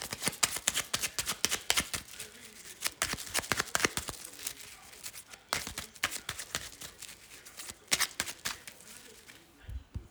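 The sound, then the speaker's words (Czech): Tarot cards being shuffled during a tarot reading, a rapid run of crisp papery flicks and riffles that come in uneven bursts, fairly soft, with brief pauses between clusters and no voices. “Já už se dívám na vaši fotku, míchám u toho karty a my se výhledově podíváme, co nám Tarot poví.”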